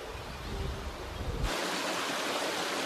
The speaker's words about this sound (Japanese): えー、ここからお聞きいただくのは7月30日に配信されました埼玉県大里郡寄居町を流れるフープ川の涼しげな音色です。